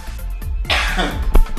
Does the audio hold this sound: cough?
yes